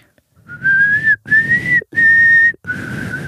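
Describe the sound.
A person whistles a short four-note signal tune, each note held steadily with brief pauses between, loud, with a soft breathy rumble underneath.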